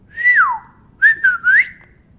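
A shepherd's whistle commanding the sheepdog Patch while herding sheep: a long, high note that slides downward, then after a brief pause three quick connected toots ending on an upward swoop. It is clear and fairly loud, with no talking.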